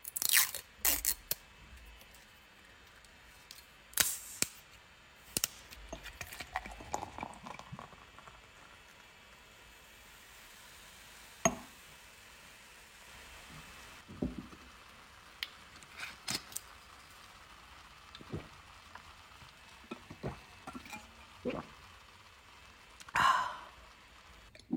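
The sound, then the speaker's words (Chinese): Rustling and crinkling as a wine bottle cap is worked open, followed by the trickle of wine being poured into a glass to drink while chatting, with scattered clinks and soft sharp clicks. No one speaks. “我好喜欢这个酒倒进去的那个水的声音， 对， 就是还有开盖子的时候稀稀簌簌的声音”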